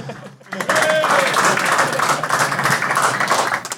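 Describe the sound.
A burst of audience applause starts abruptly and continues steadily, many hands clapping in a dense, close crowd with faint voices mixed in.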